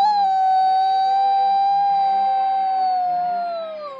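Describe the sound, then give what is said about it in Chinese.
A person imitates a rooster's loud, high "oh-oh-oh" crow for a children's story about a farm rooster, one long sustained note held for about four seconds, wavering slightly before sliding downward and fading at the end. “你听那嘹亮高昂的“哦哦哦””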